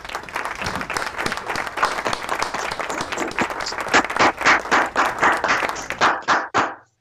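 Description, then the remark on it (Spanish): A crowd applauds steadily for a man, many hands clapping in a dense wash that shifts into a few louder, rhythmic claps before tapering off and stopping abruptly. “La verdad que, hermano, esto, un aplauso ¿verdad? para el hombre.”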